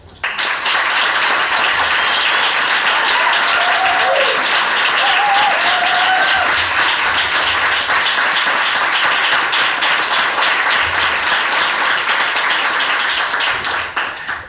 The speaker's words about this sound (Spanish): Por eso este primer aplauso va a … por acercar la luna a su espacio.